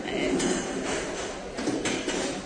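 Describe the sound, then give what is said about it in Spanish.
Clattering and scraping of chairs being carried out and set down at a parish association's seat before a farewell ceremony, a busy run of knocks and thuds, with murmuring voices of about 30 gathered people underneath. “Aún esperamos que lleguen muchas más, por eso siguen sacando más sillas, por eso escucháis ese ruido.”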